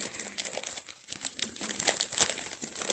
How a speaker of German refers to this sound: ich habe keine Schere, aber ich habe die Folie so abgekriegt.